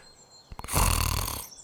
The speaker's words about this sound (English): Her little snores were adorable.